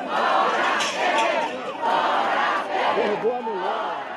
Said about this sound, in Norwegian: Ut med temer, roper demonstranter fra venstresiden utenfor presidentpalasset i Brasilia.